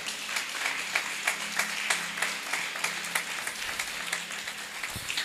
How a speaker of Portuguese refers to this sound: Você pode aplaudir o Rei da Glória.